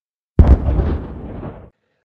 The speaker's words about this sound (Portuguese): Vocês estão indo até, até o prédio e vocês escutam o barulho de uma explosão.